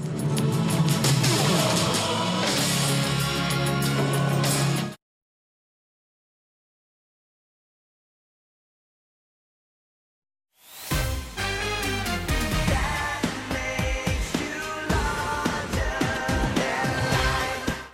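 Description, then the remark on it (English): A boy band pop song plays loud and full, drops into about six seconds of dead silence, then comes back in at the same volume and runs to the end. “Yeah, that song still hits”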